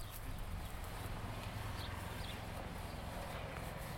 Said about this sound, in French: Elle est affaissée, ou elle respire, parfois le fume, je laisse ma trace dans cette terre grasse. J'entends mes pas. Sous mes pieds, le sol change au détour d'une pensée.